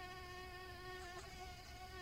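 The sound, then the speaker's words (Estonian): Late mosquitoes whine steadily all around, outside by a house, with a thin, high-pitched buzz that holds unbroken for the full two seconds, fairly faint, with no voices or other sounds. “hilised sääsed pinisesid ümberringi”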